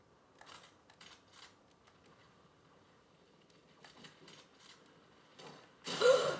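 A few quiet mechanical clicks and rattles, then a loud, harsh pump-shotgun blast from a video game bursts out near the end. No one speaks.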